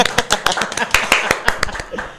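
A scattering of audience applause: uneven, sharp handclaps at a moderate level, loose and unsynchronized, with faint vocal sounds mixed in underneath.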